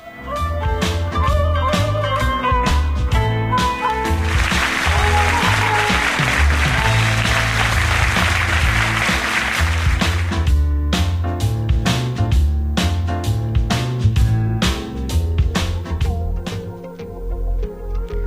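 A song plays loudly and continuously, with a steady beat and deep bass. A wash of noisy texture swells through the middle of the track. There is no talking.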